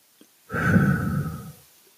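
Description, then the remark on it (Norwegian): A single long, breathy exhale, depicting Jesus breathing on his disciples in a Bible reading, lasting about a second and fading gently at the end, with silence on either side. “Da han hadde sagt dette, pustet han på dem og sa”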